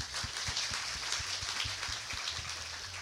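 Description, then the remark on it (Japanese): Several people clap together in a steady, dense burst of applause that holds at an even level throughout, with a few sharper individual claps standing out from the crackling wash. “本当にちょっと拍手させてもらっていいですか、ね、拍手ですね”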